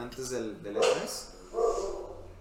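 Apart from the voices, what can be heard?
dog barking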